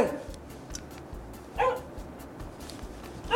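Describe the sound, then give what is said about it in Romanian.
A dog named Rex barks in three separate bursts spaced over a few seconds, moderately loud, against a low, steady background rumble with no talking. “Bă, Rex, taci dracu din gură Bă, taci bă din gură”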